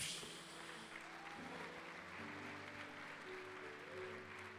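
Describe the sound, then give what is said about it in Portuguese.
A church audience applauds the Lord during a Portuguese-language worship service, a steady, dense, continuous wash of clapping lasting the whole stretch, with sustained low keyboard chords ringing underneath and shifting pitch a couple of times. “Dê um glória a Deus e aplauda ao Senhor aí.”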